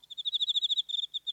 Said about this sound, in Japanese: 本物のねコオロギの音が出るようになってるんですすごいですね、はい、あのこれ、えっと、このコオロギの声とかっていうのは、す、は、べ、い、てあの作ったものではなくて本物の声なんですか？